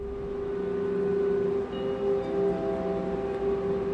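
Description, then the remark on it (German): A train hums steadily beside a platform at the Leipzig railway station, a constant tonal drone over a broad background rumble, fairly loud and unbroken throughout with no voices. “Der Leipziger Bahnhof hat sich seit 1938 kaum verändert.”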